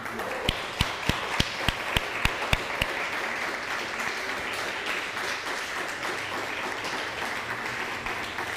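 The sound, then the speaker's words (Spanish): An audience breaks into loud, sustained applause to God for Shemini Atzeret, a dense wash of clapping that lasts throughout, with a run of sharp, evenly spaced claps standing out in the first few seconds. “Dale un fuerte aplauso al Eterno por Shemini Azeret.”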